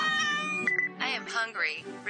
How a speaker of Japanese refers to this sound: ただいまお出迎えに来てくれたのかかわいいな今日はあの猫の言葉がわかるっていう機械買ってきたニャウリンガルってやつをね翻訳してみるか